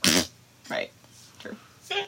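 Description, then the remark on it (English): A short, loud, buzzy fart noise blown with the mouth bursts out at the start, followed by a few brief, quieter vocal sounds and breaths. “I hope that recorded okay, the fart noise.”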